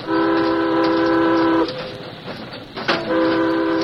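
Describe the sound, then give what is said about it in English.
A steam train whistle sounds as a warning, two long, loud harmonic blasts separated by a brief gap, with a sharp hiss between them and the rumble of the train running underneath. “Give a warning.”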